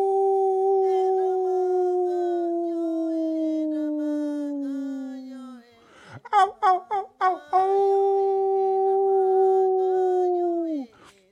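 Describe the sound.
A person in bed on a full-moon night imitates a wolf, holding a long, slowly falling howl, breaking into a few short yelps, then launching into a second sustained howl that cuts off abruptly. Loud.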